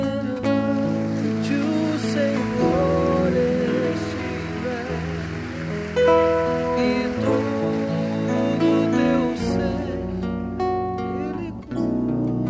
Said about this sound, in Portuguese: Se você quer aplaudir ao Senhor, aplaude.